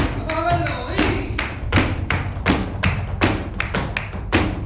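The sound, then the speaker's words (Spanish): A flamenco dance class in full swing at the Flamencos por el Mundo school on calle San Luis, with rapid, repeated heel and foot strikes stamping out a rhythm on a wooden floor, loud, over a low murmur of the room. “Así suena una escuela de flamenco en pleno apogeo.”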